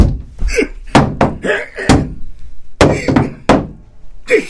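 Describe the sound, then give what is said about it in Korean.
A grandfather's bedroom door is flung open abruptly in the small hours after 4 a.m., with a series of loud, sharp wooden thuds and bangs hitting in quick, uneven succession. “벌컥 할아버지 방문이 열리더니 망치를 머리 위로 치켜든 할아버지가 내 방을 향해 달려가셨다.”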